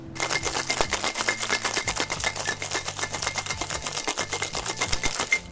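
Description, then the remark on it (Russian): A cocktail shaker holding a raspberry cocktail with egg white is shaken hard with ice, making a fast, steady rattle of sharp clicks that runs loud and unbroken for several seconds over soft background music. “И шейк со льдом.”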